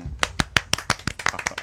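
A short burst of applause welcoming a guest on a Jiuxiao Radio program: about ten sharp, evenly spaced hand claps in a quick, steady rhythm, fairly loud, with no voices over them.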